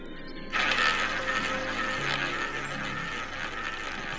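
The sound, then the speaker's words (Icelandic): A roulette wheel spins with a steady whirring rush and a rapid stream of ticking clicks, starting abruptly after a brief quiet moment and continuing at an even, moderately loud level. “En nú heyrum við rúletu hljóð”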